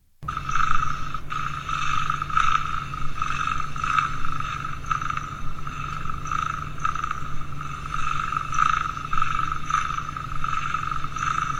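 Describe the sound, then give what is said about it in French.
A cat named Satya purrs steadily, a continuous low rumble with a gentle rhythmic pulse as it breathes in and out, with no voices or other sounds around it. “Le ronronnement est plutôt un signe d'affection.”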